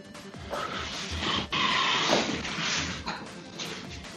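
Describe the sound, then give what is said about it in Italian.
A chair creaks and groans, a dense run of irregular squeaks and rustling shifts lasting several seconds, with no one speaking. “Che, che rumori di sottofondo. Sono io, scusatemi, ho una sedia che una lancia fuori dalla finestra.”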